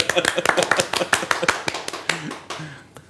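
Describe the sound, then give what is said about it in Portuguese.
Quick, irregular hand clapping, sharp and fairly loud, runs for about two seconds and then thins out, with a brief voice sound near the end. “palmas, palmas para ele.”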